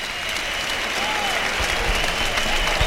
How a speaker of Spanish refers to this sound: Ahí va hasta los medios para recibir la ovación. La gente empieza, a, sacar los pañuelos. Yo creo que se la van a dar claramente.